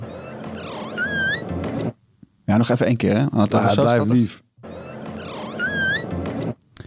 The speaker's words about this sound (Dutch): Het was namelijk eh, de robot Lovot. Eh, jij hebt hem gezien op eh, TechBus 6. Wat een gaaf ding. De schattigste robot, toch? Van, ja, maar, ja, maar echt. Ah, dat, zeg maar, dat ding dat reed daar rondjes.